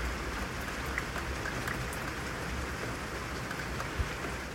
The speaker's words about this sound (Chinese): 想要给大家听一下昨天我录的雨声。可能对于大家来说，并不是一件很稀奇的事情，对于东京的人来说，也没有那么稀奇。但我就是觉得这个声音很好听，所以就私心录了下来，私心播给大家听。